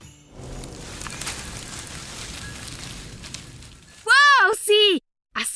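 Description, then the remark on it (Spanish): Dry, crackling rustle of tree branches runs steadily for about four seconds at moderate volume, then gives way to loud, sweeping voice-like tones near the end. “árboles haciendo sonar sus ramas para entonar villancicos.”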